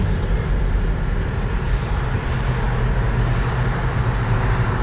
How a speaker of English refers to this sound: oh, here comes this race car guy back. He's back again. he went all the way down the road and turned around, came back, passed me again. Hot dog. So. you hear that guy? He's like a little kid. He, he likes to make that loud noise